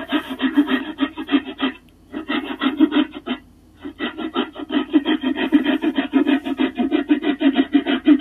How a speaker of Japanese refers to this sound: しかもこれ結構時間かかるっていうね。あの、家にあった枝切り用のノコギリでやってるっていうひどいことをやってます。